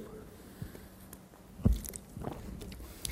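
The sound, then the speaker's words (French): A quiet sip from a drink, with small wet mouth clicks and a soft gulping swallow midway, then faint lip sounds; no one speaks. “Je profite pour boire une gorgée.”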